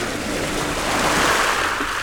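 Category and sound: sound effect, sea waves sound effect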